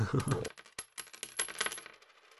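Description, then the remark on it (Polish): Coins clinking and jingling, a cash-register style effect: a brief dense rattle of metal pieces, then a series of bright scattered clinks that gradually thin out, fairly loud. “taki odgłos kasy może wstać. Ja, i... Tak. jak, jak złotówki w spożywczaku.”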